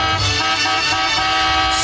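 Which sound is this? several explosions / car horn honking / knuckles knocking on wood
car horn honking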